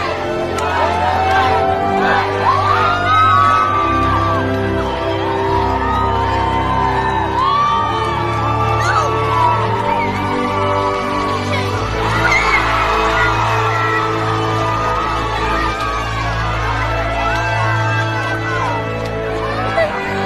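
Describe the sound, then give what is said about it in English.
A crowd cheers loudly and continuously for a little boy doing a backflip, with overlapping whoops, yells and excited shouts rising and falling over a steady low rumble for about twenty seconds. “Not only is this just super cute because of this little boy, but watch and listen to the crowd around it.”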